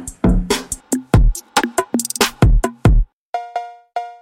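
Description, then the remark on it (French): A punchy drum beat with deep kicks and snappy percussion plays, then drops out, leaving three bright, ringing West Coast-style cowbell hits, placed for the chorus of a track, struck evenly in a steady rhythm, loud. “La Cobel, ouais, bien West Coast.”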